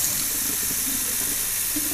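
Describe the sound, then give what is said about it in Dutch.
Tap water runs steadily into a bottle being rinsed for a child: a continuous bright hiss with faint gurgling swirls as it fills and sloshes. No one speaks. “Ontspoelen voor mijn zoon.”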